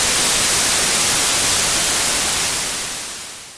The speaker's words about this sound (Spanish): Se encendió sola la televisión en estática.